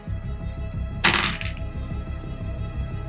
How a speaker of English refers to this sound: Damn, my dice are loving me. That is six under 95.